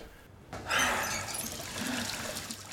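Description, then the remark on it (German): Cold water from a tap starts running after a brief quiet moment, then keeps up a steady splashing hiss as it pours over the inner side of the wrists to cool them, with no voices. “Dann hilft nur noch kaltes Wasser in kleinen Schlucken und zur Kühlung der Innenseite der Handgelenke.”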